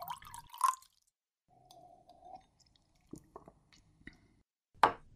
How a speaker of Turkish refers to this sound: Size bir kadeh en sevdiğiniz içecekten koyuyorum.